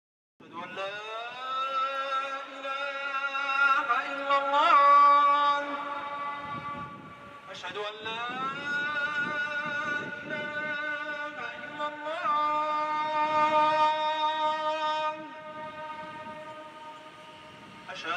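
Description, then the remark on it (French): A recorded, amplified call to prayer from the Hassan II Mosque: a single voice chants two long, sustained melodic phrases with wavering, gliding pitch and bright harmonics, loud and steady with a brief break between them. “Je vous remercie de votre écoute et de votre attention et on se quitte avec un enregistrement de l'appel à la prière de la mosquée Hassan II.”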